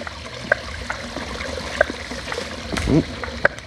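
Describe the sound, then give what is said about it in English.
Sloshing and a short splash as someone crosses a creek on foot through shallow water, over a steady trickling stream with a few sharp pops in the background. “Ooh, creek crossing.”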